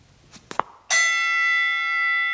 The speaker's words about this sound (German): Wir lassen uns jetzt die Zimmer zeigen. Ich klingel mal.